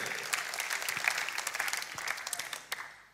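An audience claps steadily, a dense patter of many hands with scattered sharper claps standing out, holding at a moderate level before trailing off near the end.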